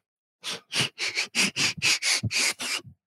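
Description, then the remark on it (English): A quick run of about nine sharp, breathy sniffs, fairly loud, coming in a steady rhythm with brief gaps between them and no talking. “you passed the sniff test.”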